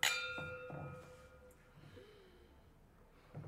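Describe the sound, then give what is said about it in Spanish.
Wine glasses clink together in a toast, a bright ringing chime at the start that rings on and fades, followed by soft rustling and breaths. “Eh, que suene, que suene, que suenen todas las”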